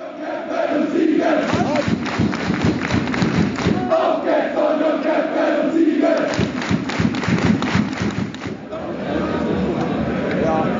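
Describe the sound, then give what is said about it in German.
A loud stadium crowd of Wolfsburg football fans chants in unison, voices blending into a continuous roar, punctuated by rhythmic thumps and claps throughout. “Zweite Mal, dass ich Wolfsburg höre.”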